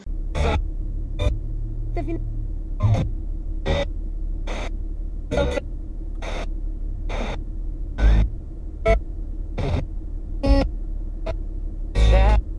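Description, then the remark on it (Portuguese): Crackling radio static inside a car, broken by a quick series of sharp bursts of noise as the tuner sweeps across stations, all over a steady low engine hum. “Vou ouvir no chiar do sintonizador, só a estática em várias estações, e agora não são mais guitarras e baterias fazendo som no ambiente do carro.”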